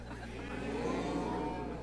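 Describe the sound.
A crowd of people imitates cows on request, many overlapping voices giving a sustained, droning moo together for a couple of seconds, fairly loud, over a low steady hum.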